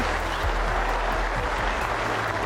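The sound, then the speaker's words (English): A large tennis crowd applauds and cheers for Australian player Thanasi Kokkinakis in a steady, dense roar of clapping that fills the whole stretch without letting up, loud, with no distinct voices standing out. “But what a statement that is, and listen to the reception.”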